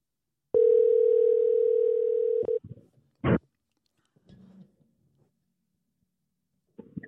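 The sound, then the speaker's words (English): A phone line gives one long, steady ringing tone lasting about two seconds on an outgoing phone call, then cuts off with a click, followed by a few faint thumps and rustles. “So it should be ringing.”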